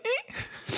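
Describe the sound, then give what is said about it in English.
A single human sneeze: a short rising voiced intake of breath followed by a burst of breathy, hissing noise, heard on its own with no talking. “Excuse me. I just sneezed.”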